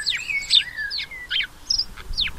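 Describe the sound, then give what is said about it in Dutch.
A house sparrow (common sparrow) chirps repeatedly in quick, bright bursts, fairly clear, with short pauses between the calls and no voices present. “Dat is een mus. Dit is de gewone mus.”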